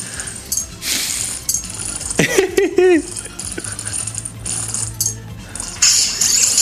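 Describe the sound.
A zipper is pulled open and shut several times up close, giving short scratchy rasps in an uneven rhythm, with a brief voiced sound partway through.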